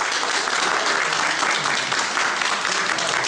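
A group of people applaud steadily, a dense, continuous patter of clapping hands that stays even in loudness from start to finish.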